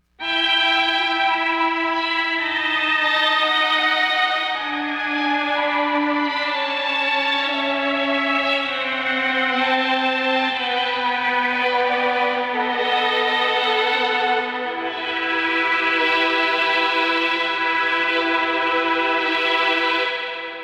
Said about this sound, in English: going to run the mellotron with the classic three violins sound, which is one of the most famous string sounds from the mellotron